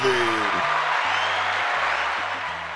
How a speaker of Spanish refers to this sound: Aplauso a los caballotes.